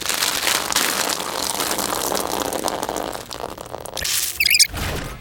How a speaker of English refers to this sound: can you help me zip up my dress, please?